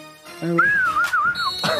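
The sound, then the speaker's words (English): A whistle sounds during an American football game for about a second, a clear wavering tone that dips and rises, followed by a thin steady high note, over a muffled background of noise. “Did I hear a whistle?”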